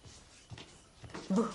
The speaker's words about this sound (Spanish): Ella camina hacia él.